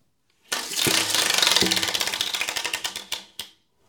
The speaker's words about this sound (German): Ich werde jetzt dieses Glücksrad zum ersten Mal drehen an dieser Wand.